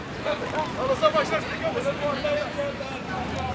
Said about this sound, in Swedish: kan höra folk skrika och folk så här, ganska skönt. Väldigt levande atmosfär här på Medborgarplatsen som man alltid gillar.